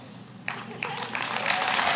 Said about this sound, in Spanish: Ahora, ¿por qué aplauden? Ah, porque yo no sé en qué momento se metió ese demonio del comandante.